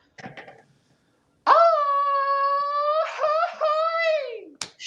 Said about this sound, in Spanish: ¿me puedes repetir el grito para ver cómo más o menos sería la cosa?